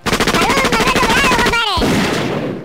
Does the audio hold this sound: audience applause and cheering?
no